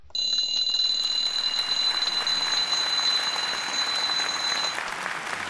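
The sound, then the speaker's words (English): Will Rogers's famous alarm clock rings continuously with a loud, shrill, rattling metallic clatter for about four and a half seconds, then cuts off abruptly, leaving a lingering rattle. “Welcome to the Not So Current Event podcast, featuring Will Rogers and his famous alarm clock.”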